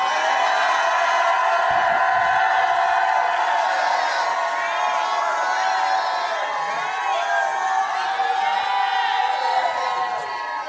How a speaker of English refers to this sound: Well, if I'm preaching from the Lord today, jump up and shout like you never shouted in your life.